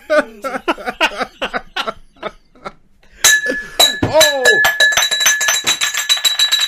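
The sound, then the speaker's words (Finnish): Bright glass clinks and rings out sharply several times after a stretch of laughing, with lingering tonal resonance as the glass is knocked and handled. “Onko muuten vähän kestävää lasia? Ihan vitu hyvää lasia.”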